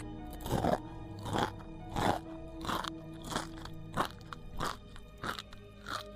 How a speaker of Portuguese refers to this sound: Ele come alguma coisa ali também.